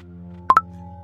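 A Snapchat app notification tone: two quick, bright electronic chimes in close succession, the second slightly higher, clear over a low steady background hum.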